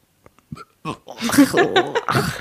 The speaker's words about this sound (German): Also normalerweise schneide ich meine Rülpse raus, aber den lasse ich jetzt drinnen.